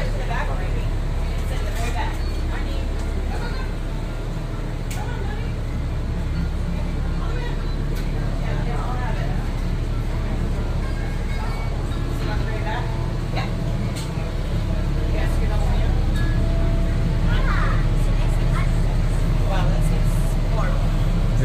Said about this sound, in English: You're sitting over the engine.